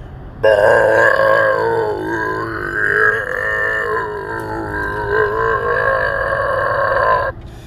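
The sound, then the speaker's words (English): A person produces one very long, drawn-out burp, loud, rumbling steadily for about seven seconds with a wavering, gravelly pitch before cutting off abruptly. It sounds like a vocal imitation. “and burps for like five minutes.”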